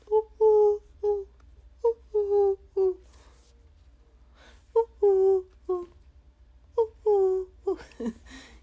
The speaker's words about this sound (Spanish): Está el pájaro, ya vete. Es una palomita que tiene como un collarcito negro. Cafecita, pero con collarcito negro.